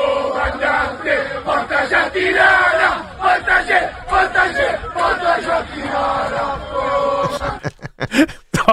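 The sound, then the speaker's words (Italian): A crowd of football fans aboard an airplane bound for Tirana chanting loudly in unison at the pilot, a rhythmic, repeated shouted refrain ("Portaci a Tirana") with cheering voices, ending in a few sharp claps and bangs. “Allora, questo è il coro che è partito su un aereo di tifosi sì.”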